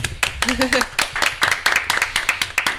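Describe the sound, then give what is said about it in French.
A few people clap their hands in quick, slightly uneven bursts for about three seconds, with a brief vocal sound, like a laugh, near the start, applauding the end of a live broadcast. “Bah, on, peut, applaudir, non ouais.”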